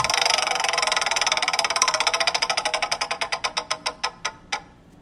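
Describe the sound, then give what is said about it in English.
A prize wheel is spun to pick a category for a 'bout it or doubt it' quiz game, giving a rapid, loud stream of clicks that gradually slows. The ticks space out further apart until the wheel comes to a stop. “we're going to spin the wheel and get you a category, and then we're going to ask you a couple of bout it or doubt it questions.”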